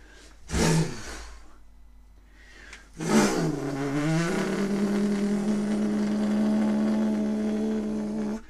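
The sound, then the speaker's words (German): The propeller engine of an ultralight motor aircraft sputters once, then catches and revs up into a steady, droning roar that holds fairly loud until the end, with no voices. “Aber der Motorflieger hat einen Propeller.”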